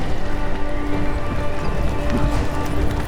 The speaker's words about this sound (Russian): Смотрите, впереди целая колонна лошадей Сани тащат Тяжело лошадкам Груз какой-то тянут Везут рыбу в Москву Это рыбный обоз